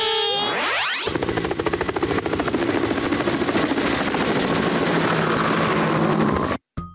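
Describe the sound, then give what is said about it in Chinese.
A helicopter's rotor blades beat in a loud, rapid, steady chop over a roaring engine drone, after a brief rising whine at the start; the sound cuts out briefly just before the end. “我们有许多的交通工具可以飞上天空哦。有些交通工具啊，有扇叶会转转转，就会发出刚刚的声音哦。”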